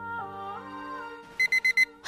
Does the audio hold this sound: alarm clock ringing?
yes